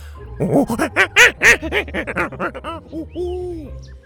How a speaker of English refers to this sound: Get out of here, Tuku! Bo waved Tuku away from Gavin's bag and the chubby monkey menace made off with a wallet, howling angrily as he hopped out.